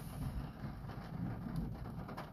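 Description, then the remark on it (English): Steady rain hisses across the whole stretch, with a low, rolling rumble of thunder underneath, a quiet storm on a dark evening at Worsley Cemetery in Vernon County, Missouri. No one speaks. “I do hope that you can hear what I'm hearing with the thunder and the rain.”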